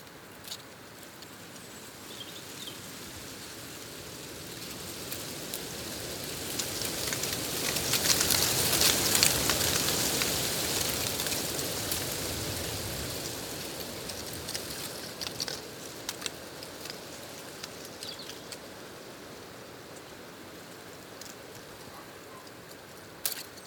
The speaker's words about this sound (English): This is the sound of dry oak leaves clattering in the wind in Clocaenog Forest in North Wales. It's early April and the buds of new growth are here, but last year's leaves refuse to let go.